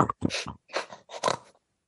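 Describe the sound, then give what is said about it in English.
A person snorts like a pig to demonstrate the soft palate, three rough, nasal grunting bursts in quick succession, fairly loud and raspy, with no talking over them. “Um, you snort like a pig. I'm not kidding.”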